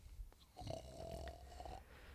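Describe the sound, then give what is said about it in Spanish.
A small puppy, asleep curled among the cushions of a sofa, snores once, a thin whistling, high-pitched snore lasting just over a second, fairly quiet, with soft breathy noise around it and no talking. “Un pequeño ronquido que provenía del sofá.”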